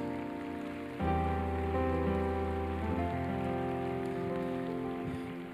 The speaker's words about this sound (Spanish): Amén. Así que apláudele fuerte a Jesús.